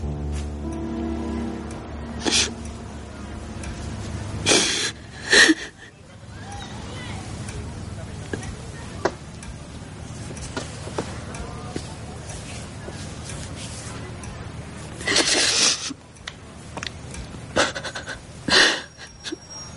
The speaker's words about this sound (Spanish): … llora sentada en la mesa del salón